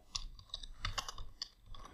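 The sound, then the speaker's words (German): Quiet, irregular clatter of keys being typed on a computer keyboard, a rapid scatter of small clicks with no voices. “Nein, auch noch das Tippen nicht gehört.”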